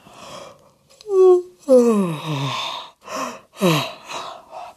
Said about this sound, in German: Frau Usebuse gähnt.